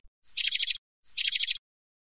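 A sparrow, Piou Piou, chirps as it arrives, in two quick bursts of rapid, bright twittering notes, clear, with a brief pause between them and no other sounds around.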